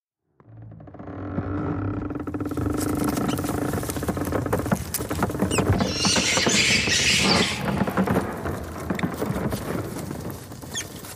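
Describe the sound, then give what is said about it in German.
Busy scratching and rustling with scattered high squeaks of dozens of rats deep inside the hull of the ship Belgica at night, steady and dense throughout, with a low creaking rumble of the groaning ship underneath and no talking. “Das Fiepen und Rascheln ist so laut, dass einige kaum schlafen können.”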